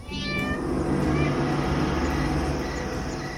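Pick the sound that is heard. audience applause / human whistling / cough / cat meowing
cat meowing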